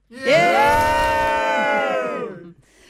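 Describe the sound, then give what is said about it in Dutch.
A radio studio full of guests from Club Twente cheer and shout together in one loud, sustained burst of whoops and yells lasting about two seconds before cutting off. “En daarvoor hebben we hier, net als vorige keer, een studio vol gasten. Want het beviel heel erg goed. Laat jullie eens horen allemaal.”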